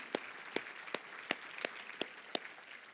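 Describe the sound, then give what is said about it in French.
Congregation applause heard as steady, evenly spaced clapping: about seven sharp, crisp claps standing out over a faint hissy wash, with no one talking. “Une bonne main d'applaudissement pour Portail Abitibi.”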